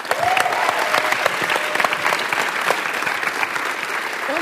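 Steady, dense applause from many hands, a loud continuous crackle of clapping that holds at an even level for the whole stretch, with a few faint whoops rising above it.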